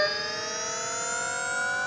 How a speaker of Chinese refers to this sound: 哇，原来是一架飞碟，上面坐了一个外星人呢。